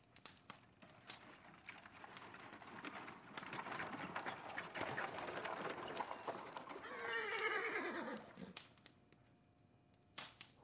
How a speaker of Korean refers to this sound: 홈즈의 말과 더불어 날카로운 말발굽 소리와 마차 바퀴가 연속에 쓸리는 소리가 들리더니 곧이어 와락 잡아당긴 초인종 소리가 다급히 들려왔다. 홈즈가 휘파람을 불었다. 음, 소리를 들어보니 말이 두 필이군.